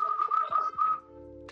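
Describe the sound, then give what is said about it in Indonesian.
A bird calls at night in a steady, warbling series of whistled notes for about a second, clear, then stops, leaving a quiet low hum behind. “ada suara burung siapa tuh”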